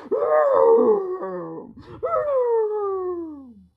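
A voice imitates a long, loud roar: two drawn-out, groaning bursts with a brief break between them, the second sliding slowly downward in pitch until it fades out.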